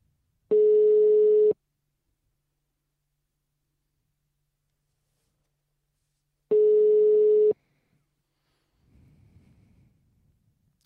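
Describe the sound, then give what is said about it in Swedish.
Two long, steady electronic ringback tones of an unannounced phone call, about six seconds apart, each lasting roughly a second, loud and clear with silence between, followed by a faint rustle and no answer. “Jag har inte förvarnat honom, ska vi säga. Vi ringer bara.”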